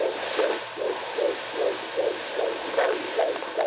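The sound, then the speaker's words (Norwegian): A fetal heartbeat plays through a midwife's doppler speaker, picked up by a probe with a dab of gel on the pregnant belly: quick, regular whooshing pulses, about eight in under four seconds, over a steady hissing static, loud with no voices. “Og magien ved et ufødt livs hjerteslag kommer ut av høyttaleren hos jordmor.”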